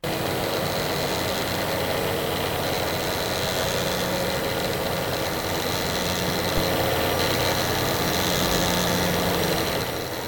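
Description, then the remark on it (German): A continuous mechanical whir from a thread winding machine spooling sewing thread onto a spool at high speed, steady and fairly loud with a constant hum and faint rattling texture, no voices. “Rasend schnell, auf eine Spule und das hört sich so an.”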